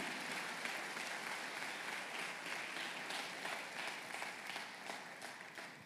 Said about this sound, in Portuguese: Pode aplaudir, aplauda. Ele merece.